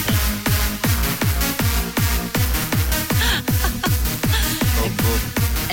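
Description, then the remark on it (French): A loud techno track pounds with a steady four-on-the-floor kick drum, deep pulsing bass and bright synth layers, driving at a fast, unbroken tempo with no voices. “un petit souvenir pour la route. Après, ben c'est promis, je vous reparlerai plus jamais, on l'a bien compris, de musique techno.”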